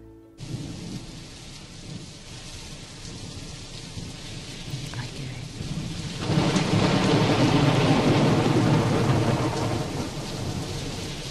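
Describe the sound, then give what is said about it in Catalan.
A thunderstorm recording placed in a well-known song, with steady, heavy rain hissing throughout and a deep rumble of thunder swelling midway, growing louder and fuller toward the end. No voices. “Quina tempesta, no?”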